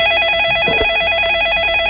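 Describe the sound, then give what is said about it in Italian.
A telephone line connecting and ringing as a caller from Palermo phones in: a steady, buzzing electronic ring tone fills the whole moment, loud, with a brief soft thump partway through and no voices. “E se vogliamo sentire anche qualcuno che magari telefona, non lo so se si può fare, ma credo di sì, ho due domande pronte,”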